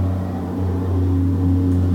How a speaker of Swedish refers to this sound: så är det Traktorsläp med dynga eller vad det nu var. Ja, man får känna alla dofter också här ute.